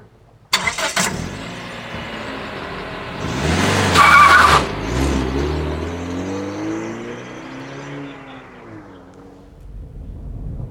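A small Smart car engine cranks and starts outside Fatty's bar in Romford, revs up loudly with a brief tyre squeal, then pulls away, its engine note rising and falling as it drives off, with no talking.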